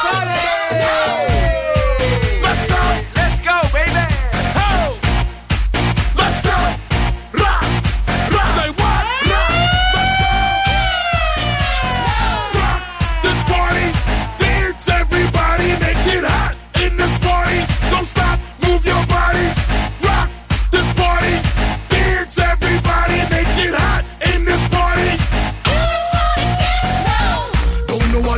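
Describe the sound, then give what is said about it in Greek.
A loud, up-tempo dance track with a driving four-on-the-floor beat and swooping synth or vocal lines, turned up at full volume for listeners in their cars in Thessaloniki, playing continuously with no one talking over it. “Λίγο να χορέψουμε θέλω. Για εσά που είστε στο αυτοκίνητό σα, θέλω τσίτε εντελώ να ακούει όλη η Θεσσαλονίκη.”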